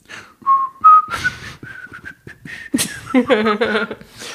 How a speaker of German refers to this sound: Und Danger Moretti pfiff ein Liedchen vor sich hin.